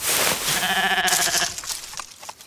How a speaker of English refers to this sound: Is that a goat? Is that PJ's fancy pajama shirt he's got in his mouth? The ones from Iceland? How'd this goat get them?